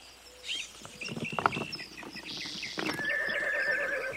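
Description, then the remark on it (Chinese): A horse hitched to a carriage lets out a shrill, wavering whinny over a run of uneven hoof clops, with a second high, drawn-out neigh near the end. No one speaks. “有钱人套好了马车，准备送他们去礼拜堂。”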